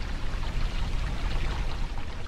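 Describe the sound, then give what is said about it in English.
Steady rushing river water beside Changning, the biggest town in Xunwu County, China, where poor women still do laundry. The water is fairly loud, with a continuous churning, splashing texture and no voices throughout. “Now, there are about 100,000 people here, and luxury apartment towers are rising like mushrooms beside a river where poor women still do laundry.”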